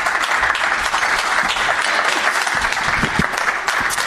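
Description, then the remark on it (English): A live audience in a venue holding eighteen thousand people applauds steadily as comedian W. Kamau Bell is welcomed, dense clapping at a constant loud level, with scattered cheers and whoops rising through the noise. “Wow, that's gonna that's gonna sound like a full room when it's on recording.”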